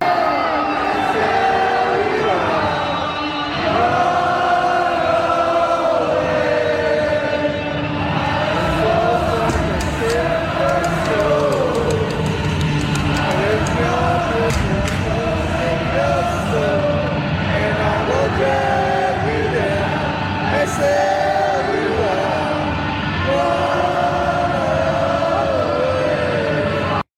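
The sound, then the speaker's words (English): A huge arena crowd of AEW fans at All Out sings Chris Jericho's entrance theme in unison, loud and sustained, with cheers, whoops and scattered shouts rising through the chanting and a guitarist playing the theme without lyrics underneath. “performing his theme song without the lyrics, and the fans sang the whole thing down the road.”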